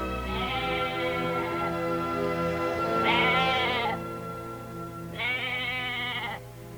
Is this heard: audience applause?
no